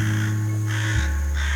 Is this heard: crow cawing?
yes